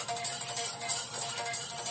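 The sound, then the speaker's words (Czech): A mobile phone's SMS text message alert plays a thin, steady tone that pulses faintly on and off over a constant hiss of background noise, with no one talking. “To je SMS-ka.”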